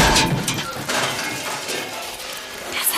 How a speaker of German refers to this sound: die Leiter kippt! Oh nein, sie knallt gegen den Schuppen!